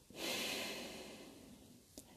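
A deep, airy breath drawn and let out close to the microphone, swelling quickly and fading over about a second, followed by a short soft click.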